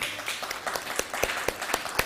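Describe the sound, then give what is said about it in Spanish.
An audience breaks into applause, a dense wash of many hands clapping steadily, with a few sharper, louder claps standing out at a quick regular rhythm. “Denle un aplauso al bendito sea por esto.”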